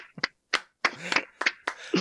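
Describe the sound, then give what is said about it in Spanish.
A short burst of scattered hand clapping from a small group, sharp, with uneven gaps between claps over about two seconds, greeting the introduction of the golden potter (alfarero de oro) of Villaseca de la Sagra. “Un aplauso, un aplauso.”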